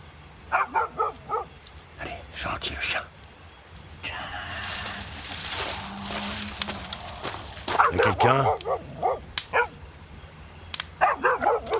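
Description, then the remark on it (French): A dog barks in several short, sharp bursts scattered through the scene, with a steady chirr of crickets or insects running underneath and some background movement. “Oh, ce chien aura ma peau Allez, reviens Reviens, le chien Il est passé où”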